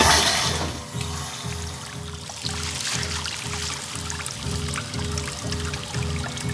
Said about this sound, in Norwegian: Jeg blei aleine med den enerverende lyden av vann. En plasking som åt som termitter på nervene mine.